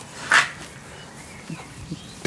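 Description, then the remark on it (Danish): A dog lets out one short, sharp yelp, followed by a few faint, soft noises that could be quiet whimpers or shuffling. “Og lige tilføje, det er min hund, jeg Nå. snakker til.”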